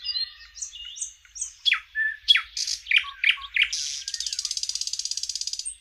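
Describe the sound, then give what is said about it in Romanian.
A common nightingale sings clear, running through varied whistles and sharp chirps before breaking into a fast, rapid-fire trill of repeated notes. No voices, just the bird alone. “vocea micii cântărețe ne face să ne oprim în loc și să o ascultăm minute în șir.”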